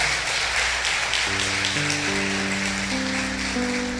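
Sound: audience applauding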